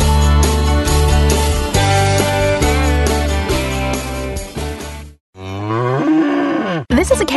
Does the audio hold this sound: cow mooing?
yes